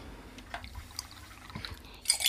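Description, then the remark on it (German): About 30 milliliters of water is poured into a small container holding about eight drops of rennet, starting with a few faint drips and splashes and ending in a brief, brighter trickle. It is quiet, with no talking. “So, und dann noch 30 Milliliter Wasser.”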